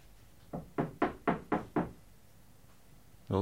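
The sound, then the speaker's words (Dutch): Six firm knocks on a door marked 'breekbaar' (fragile), the door of the department of Lucia, in a quick, even series, fairly loud, followed by a short quiet pause before another sound begins at the very end. “De klop is aan.”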